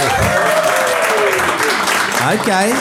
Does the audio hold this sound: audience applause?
yes